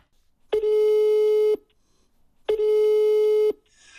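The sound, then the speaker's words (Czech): Two long, steady electronic tones, each lasting about a second with a pause between, the ringback heard while a mobile phone call to actor Vašek Šanda is connecting. Clear, with no talking. “Asi už tušíte, kdo se mi ozve v mobilu.”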